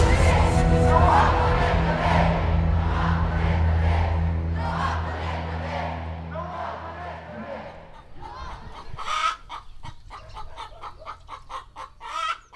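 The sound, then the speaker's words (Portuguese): A loud crowd shouts together 'O rei vai nu' (the king is naked) in a dense, sustained roar of overlapping voices for several seconds, then it breaks up into scattered calls, claps and murmuring. “O rei vai nu, gritem.”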